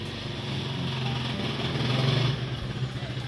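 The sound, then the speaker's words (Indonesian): A motorcycle engine drones past, its rumbling growl swelling to a peak midway and then easing off as it moves away. No one speaks. “Bentar, bentar, ada motor lewat.”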